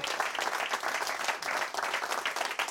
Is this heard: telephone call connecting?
no